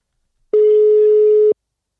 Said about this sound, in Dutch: Hij gaat over